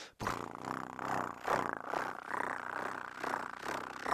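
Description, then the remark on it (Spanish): A person imitates a cat's purr, purring on each exhale, with a continuous, rumbling vocal drone that swells and pulses slightly over several seconds, steady and fairly loud. “Lo que puedes hacer es ir practicando como ronronear.”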